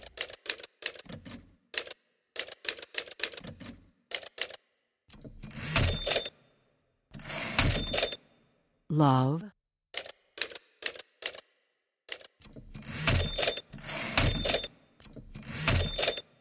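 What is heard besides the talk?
typewriter typing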